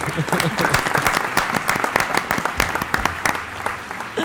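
An audience applauds steadily for a speaker at the end of her talk, a dense, loud patter of many hands clapping throughout, with bright sharp claps standing out from the crowd.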